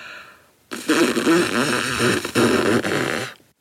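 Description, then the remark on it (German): One slow, steady breath pushed out through pursed lips for about three seconds: a loud, breathy hiss with a slight buzzing flutter, and no one talking. “Also ein bisschen so, wie wenn man einen Luftballon aufbläst, aber nicht so stark”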